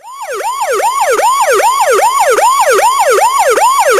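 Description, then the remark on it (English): The siren of a town policeman's new squad car driving past yelps in fast, repeating rising-and-falling sweeps, loud and steady throughout, with no voices over it. “All of a sudden, town policeman Frank Cakeman comes driving past in a new squad car.”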